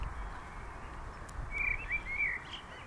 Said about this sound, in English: and now I see a little, little bird in front of me. It's newborn. ah, how sweet.